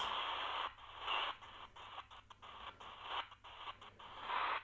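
Radio static hisses steadily and then breaks into quick, choppy steps with brief gaps as the digital tuning knob of a radio is turned, with no talking.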